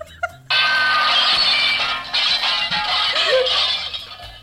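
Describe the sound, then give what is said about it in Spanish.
After a couple of faint knocks, a sudden loud crash of things falling and breaking erupts, with dense clattering and glassy clinks that continue for several seconds before tapering off. “Se cayó todo, se rompió todo.”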